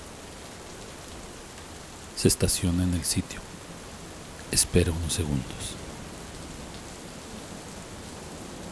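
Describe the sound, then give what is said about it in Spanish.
Steady rain hisses throughout at an even, moderate level, with two short bursts of a man speaking over it in the middle. “El agua de forma mágica cesa, dejando al chico en completo estado de incredulidad. ¿A dónde está la lluvia?”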